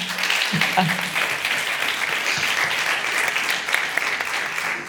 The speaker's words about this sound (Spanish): Un aplauso, por favor.